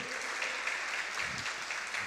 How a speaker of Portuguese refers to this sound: E então eu queria que você aí na sua casa e quem está aqui também desse uma grande salva de palmas para o pessoal da mídia e também para o pessoal do som